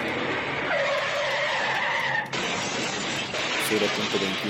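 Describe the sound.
A Chevrolet pickup truck rams head-on into a car: tires squeal and skid over a loud, rushing engine and road noise, with an abrupt jolt partway through, then a continued roar and muffled shouting voices.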